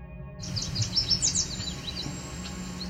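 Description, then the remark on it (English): A quick run of bright chirping yellow warbler song notes, then a cedar waxwing's thin, very high-pitched whine, drawn out steady and faint over low background hum, recorded on the Otter Lake Trail. “That's the cedar waxwing, and if you didn't hear it, here it is again.”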